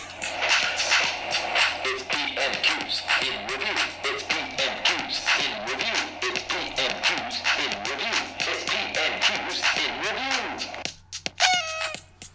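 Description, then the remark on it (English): A short, busy jingle of rapid, loud clucking and squawking bird-like calls that fills about eleven seconds, then ends with a pair of bright, rising party-horn blasts. “Um, let's start with uh, another uh, jingle, which sounds like this.”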